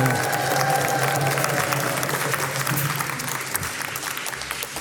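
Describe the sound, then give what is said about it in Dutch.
An audience in the old post office on the Neude in Utrecht Centrum, Netherlands, claps loudly and steadily, a dense wash of applause with some cheering mixed in, sustained for the full few seconds before tapering slightly. “Publiek, laat u horen!”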